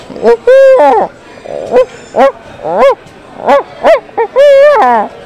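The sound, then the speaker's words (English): A person imitates an owl's hoot with their voice, making a loud series of about nine short, wavering hoo calls, some sliding up or down in pitch, with brief gaps between them. “All right, give me an owl.”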